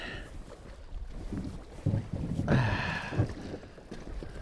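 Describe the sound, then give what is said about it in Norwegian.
A small 14-foot Pioner Maxi fishing boat moves across water in a bay on a sunny day. There is a steady low rumble, sloshing and splashing against the hull, and gusty onshore wind buffeting the microphone; no one speaks. “Pioner Maxi. 14 fot. Perfekt fiskebåt, vet du.”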